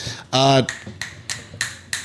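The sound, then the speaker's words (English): A female cat messing with power cables makes a series of five sharp plastic taps and clicks at uneven intervals, following a brief voiced sound at the start. “That's the cat trying to ruin our lives here.”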